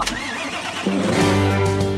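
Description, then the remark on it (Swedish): A short intro jingle opens with a burst of noisy engine cranking, then settles into steady, sustained tones that hold loud and close until the end, with no talking. “Så kör igång den här jävla gingen nu så kör vi.”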